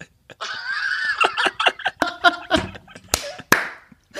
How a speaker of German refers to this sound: ah, ich habe zweimal geklatscht. Mach einmal und laut.